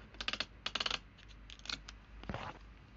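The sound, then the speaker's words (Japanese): Quiet crackling and clicking bursts of tape being pulled and pressed into place to repair broken earphones, in a few short clusters followed by a brief rougher rip, with no talking. “もういいや、テープ、テープつけちゃえ。”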